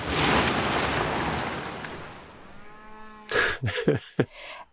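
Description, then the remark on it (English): A loud rush of water rolls through, then fades as a single long, low cow moo rises and trails off, followed by a few sharp splashing bursts. “i assume the cattle are okay in the torrent of water that you know they're immortal cattle they're fine”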